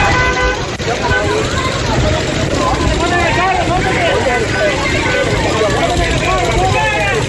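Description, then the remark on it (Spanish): Busy street traffic on a street in Uribia, La Guajira, with car horns tooting repeatedly and overlapping wails like sirens, over a constant roar of engines and crowd chatter, loud throughout. “Pitos, sirenas.”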